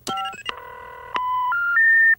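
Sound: telephone number being dialed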